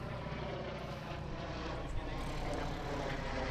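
A steady, droning drone propeller buzz with a whirring harmonic hum holds at an even, fairly loud level throughout, from a drone hovering overhead. No one speaks.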